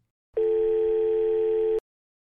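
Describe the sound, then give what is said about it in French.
A single steady electronic ringback tone, the third ring of an outgoing call, about one and a half seconds long, sounds clearly and then cuts off into silence, as heard through a phone line. “Troisième sonnerie.”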